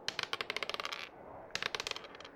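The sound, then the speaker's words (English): Two quick bursts of dice clattering and tumbling across a hard tabletop, each a rapid run of sharp little clicks that slows and settles, fairly crisp with no voices; two players rolling dice for a constitution saving throw in a tabletop role-playing game. “Can I have the two of you make a constitution saving throw for me?”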